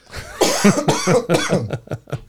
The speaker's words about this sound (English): my sore throat's going to get the best of me. I'm going to cough again.